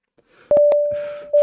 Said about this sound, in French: pour la clope électronique, euh, du coup, vous, me direz si vous l'entendez encore quand je fais ça.